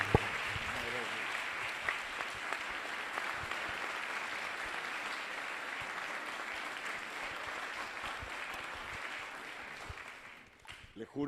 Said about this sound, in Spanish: Ahora sí, ahora sí hacemos entrega. Fuerte el aplauso nuevamente.